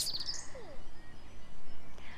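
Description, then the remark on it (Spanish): A few brief, high-pitched chirps from small birds in a nest near the start, fairly faint against a steady outdoor background hiss, with no talking. “Mira los pajaritos. Allá están en el nido.”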